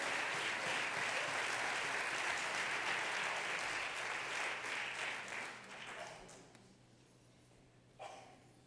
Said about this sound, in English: You may be seated, but why don't you go down clapping in the name of the Lord? God bless you.